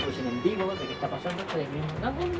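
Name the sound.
cats meowing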